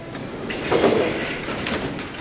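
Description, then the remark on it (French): A Paris metro train's steady, rushing rumble fills the large, crowded Châtelet station, with sliding doors thudding and hissing as they move, the whole scene loud with no clear voices. “C'est la première fois que Petit Lapin prend le métro et il n'en croit pas ses yeux et ses oreilles.”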